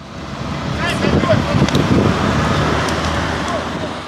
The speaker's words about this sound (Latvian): Atbrauc ugunsdzēsēju brigādes mašīna un apstājas uz zāliena, kas sadala abas ielas joslas. Uz tā izlec vairāki ugunsdzēsēji.